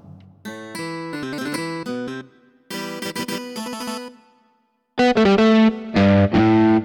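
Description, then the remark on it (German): Distorted rock guitar playing chunky sustained chords in three loud bursts, with brief gaps between phrases and the last section hitting hardest. No voices are present. “Da geht's schon los, ne? Die Rockgitarren.”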